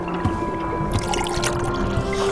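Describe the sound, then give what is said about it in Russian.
Kvass pours from a barrel into a mug: a steady splashing stream starts partway through and runs to the end, over a low constant hum, with no talking. “Ну, чуть-чуть налью вам в кружку Вон из той бочки”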